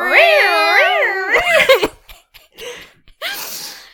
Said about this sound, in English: Every time those like cat noises come up though, it sounds it like especially with headphones on, it just kind of like sounds like there's a police car going by.